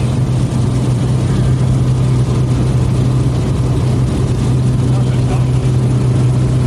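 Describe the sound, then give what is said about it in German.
A small plane's engine roars steadily, a loud, continuous low drone with a strong humming tone that holds at full power throughout, as the plane aborts its landing and goes around after a car below flashed its headlights. “Unten war ein Auto und der hat halt Lichthupe gemacht und hat er durchgestartet bin noch nie durchgestartet.”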